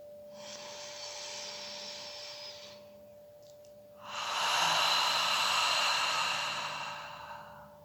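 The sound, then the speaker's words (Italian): A slow, airy exhale through an open mouth, as if fogging an imaginary pane of glass in front of the face during a breathing practice: a soft steady hiss lasting several seconds, following a quieter, smoother breath. No one speaks. “E quando espiriamo, lo facciamo appannando quel vetro immaginario davanti al nostro viso.”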